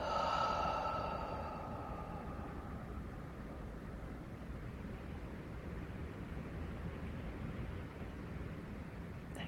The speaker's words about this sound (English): And we're going to breathe out this time through the mouth and breathe all that beautiful healing energy onto a part of our body. So, breathing in and